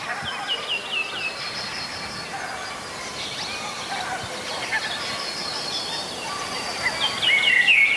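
A Eurasian blackbird sings in short, repeated phrases right by the microphone in a small wood, the song growing louder and closer near the end, over a steady hiss of outdoor ambience with other faint birdsong.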